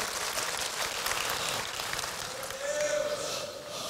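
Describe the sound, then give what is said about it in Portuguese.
An audience applauds for their brothers, steadily for the full four seconds, a dense, even wash of clapping with a faint voice or cheer rising briefly near the end. “Salva de palmas aqui para os nossos irmãos.”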